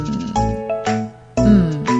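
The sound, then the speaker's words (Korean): A KakaoTalk voice call ringtone plays loudly and alone, a bright melodic chime repeating in short bursts with brief pauses between them. “어렵게 알아낸 카톡인데 안 받으시나요?”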